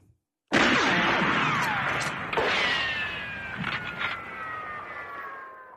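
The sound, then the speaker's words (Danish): The small motor of a tiny car starts abruptly and runs loud, a buzzing, whining engine with steady tones that shift slightly in pitch, revving for several seconds. “Lille bitte bil.”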